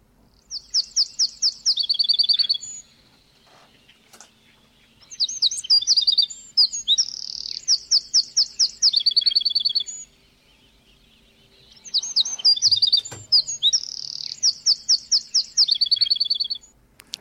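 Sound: bird chirping and singing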